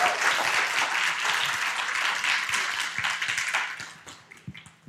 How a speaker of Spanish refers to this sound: Porque no le damos un aplauso a quienes van a verlo en casa, que están malitos, están enfermos.